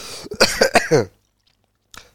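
A short fit of coughing, four or five harsh, fairly loud bursts in quick succession, then silence and a faint brief sound at the end. No one speaks.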